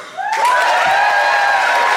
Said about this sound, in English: would you applaud now?